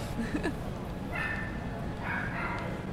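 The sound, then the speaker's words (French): A few high-pitched yips from a small dog, short bursts over a steady background hiss. “on a bien reconnu que c'était un chien”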